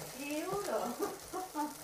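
Food sizzles in a hot pan, a steady crackling hiss running throughout, while a voice talks indistinctly over it.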